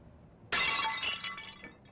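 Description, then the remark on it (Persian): A ceramic Greek wine jar shatters with a sudden loud, bright crash, followed by a short spill of tinkling fragments that fades within about a second; no one speaks. “باز هم لعنت به من من یه گلدون چینی شما رو شکستم گلدون نبود یه کوزه شراب یونانی بود اما من شکستمش معذرت میخوام”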